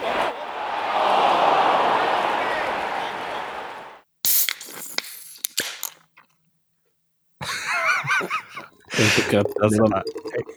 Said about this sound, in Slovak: Guinness explózia.